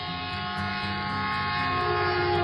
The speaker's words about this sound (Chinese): 我们在一起的头七年，大部分时间都是在轰隆隆的火车上度过。